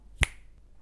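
A single sharp, crisp finger snap, cracking out once against an otherwise quiet background with no one talking.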